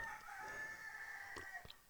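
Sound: rooster crowing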